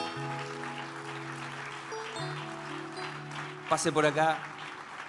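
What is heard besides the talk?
audience applauding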